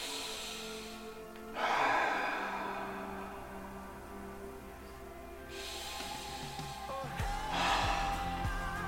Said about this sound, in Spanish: Pero ojo, también le puedes enseñar a tu perro a respirar profundo, ¿ya? No a mantener la respiración, pero sí a respirar profundo, tal como tú haces.